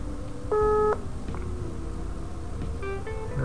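A phone's electronic tones as a call to Arkan is placed again: one steady beep lasting under half a second, then a short cluster of quick dial-like bleeps near the end, clear over a low background hum with no talking.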